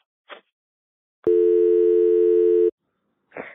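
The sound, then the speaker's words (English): A steady, loud telephone dial tone hums for about a second and a half after a phone has just been hung up, framed by brief soft rustling or clicking noises before and after it. “I swear, I just hung up the phone, and a second later, the name popped into my head.”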